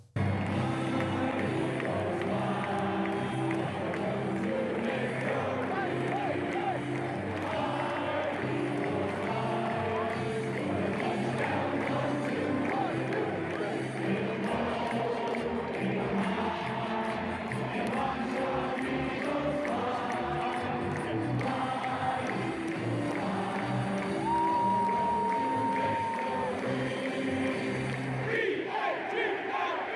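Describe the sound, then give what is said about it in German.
A huge stadium crowd sings the Philadelphia Eagles' team fight song in unison, a loud, steady chant of many voices carrying a rhythmic melody for the full half minute. “Ja, man kann über die Eagles sagen, was man will, aber das, das Lied hat was.”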